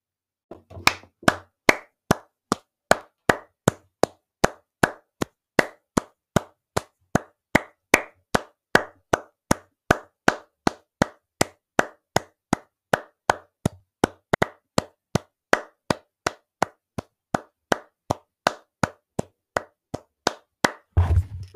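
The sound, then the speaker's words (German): Steady, rhythmic hand clapping by a single person in praise of a song, sharp regular claps about two per second that continue for roughly twenty seconds with no talking. “So, jetzt 20 Sekunden geklatscht für diesen tollen Song.”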